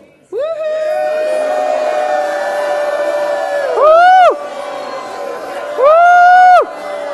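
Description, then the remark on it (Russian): A crowd shouts and cheers in one long sustained roar of many voices, swelling into two louder bursts of rising and falling whoops before settling back. “And give a shout to the one you love the best.”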